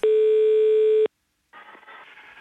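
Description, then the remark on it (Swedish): A single loud, steady telephone ringback tone lasts about a second as the cantor of Partille church phones a groom-to-be, then cuts off; after a brief silence a faint, hissy phone-line noise follows. “Då blir han uppringd utav kantorn här.”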